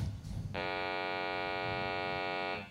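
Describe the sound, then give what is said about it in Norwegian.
A steady, buzzy electronic hum with rich overtones starts abruptly and holds evenly for about two seconds before cutting off, a synthetic sonification of a simulated universe with 70 percent dark energy and 25 percent dark matter, over faint low background rumble. “Eh, hvis vi har et univers som har 70 mørk energi og 25 mørk materie Mørk materie, står det der. Da låter det sånn.”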